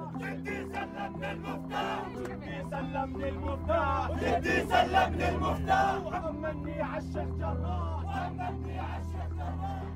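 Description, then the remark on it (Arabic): A large crowd of protesters at a sit-in in Amman, the capital of Jordan, raises their voices together in loud, rhythmic chanting and shouting, with a steady low rumble of the gathering underneath throughout. “إنه في اعتصام بالعاصمة الأردنية عمان مع نفس القضية فطلبت منها تنزل تسمع من الناس وتشاركني تفاصيل عن هالاعتصام”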